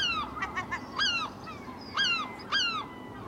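Six seagulls circling cry out in a series of harsh, descending calls, four main squawks with a few shorter yelps between them, loud over a steady background hiss.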